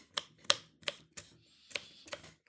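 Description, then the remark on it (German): A knife taps down steadily on a cutting board, dicing strips of bell pepper into smaller cubes with about seven crisp chops at an uneven rhythm, with no voices. “die ich äh, geschnitten habe, in so Streifen, aber ich mache es jetzt noch ein bisschen würfeliger.”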